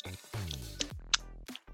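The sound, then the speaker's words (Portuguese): Someone imitates wet mouth chewing as an ASMR-style sound, making sticky smacks and squelchy clicks over low, murmuring vocal tones in a short, irregular burst. “O problema é que eu tenho de barulho pela boca é quando a pessoa ela tá mastigando, ela tá comendo e ela fica”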